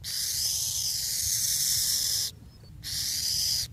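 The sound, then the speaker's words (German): An owl gives a long, harsh hiss much like a rattlesnake's rattle, loud, breaking off for a brief pause before a second sustained hiss, with no one speaking. “Ich habe die Eule mal mitgebracht.”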